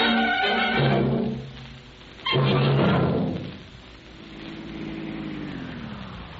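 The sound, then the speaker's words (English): A police car's engine revs up in two strong bursts, then its hum drops and winds down as the car slows to a stop to be filled with gasoline. No one speaks. “Well, I wouldn't dare give a police car any other gasoline.”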